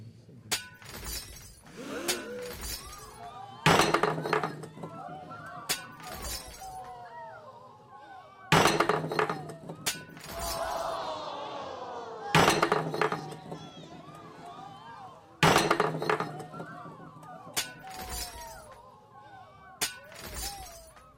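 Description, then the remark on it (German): A rapid series of plates and glasses smashing, about eight loud crashes at irregular intervals, each followed by ringing, tinkling shards, with some voices murmuring in the background. “Na, mitgezählt, wie viele Teller, wie viele Gläser sind denn da zerbrochen?”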